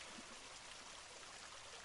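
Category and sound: nature, water splashing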